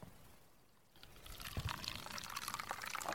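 Coffee is poured into a cup, starting after a near-silent second as a steady stream of liquid with bright splashing and gurgling that continues to the end.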